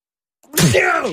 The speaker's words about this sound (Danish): Øj, ej, ej, hold dig lige fra munden. Det gjorde jeg da også. Det gjorde du da overhovedet ikke. Du, du nøs sgu da lige over på mig. Nøs på dig? Jeg nøs dig op i luften.